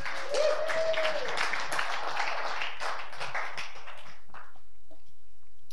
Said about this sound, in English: Clap for him as he walks by. Come on out.